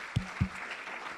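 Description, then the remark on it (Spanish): An audience applauds the word of God in a steady wash of many hands clapping at once, with two dull low thumps early on rising above the even clatter. “Por favor, denle un aplauso a la palabra de Dios, ya lo veo muy tensos.”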